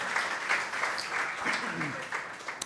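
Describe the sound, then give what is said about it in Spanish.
A small audience claps steadily for a few seconds, a dense patter of many hands with faint voices murmuring underneath, applauding the brand manager of Benel. “un aplauso”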